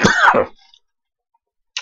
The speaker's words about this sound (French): Ah, vous avez remarqué, j'ai une petite toux, hein, j'ai attrapé un petit peu la crève, j'ai pris courant d'air, un coup d'air froid et chaud.